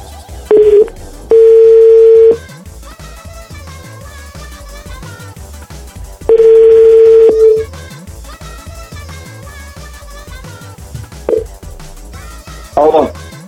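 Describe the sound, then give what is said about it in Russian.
A phone line rings out with steady electronic tones, two long ringback bursts a few seconds apart plus a couple of short beeps, over a background of music, as radio hosts phone a critic of their show on air. “который сейчас как раз нам ответит на все вопросы. Если он, конечно, подойдет к телефону.”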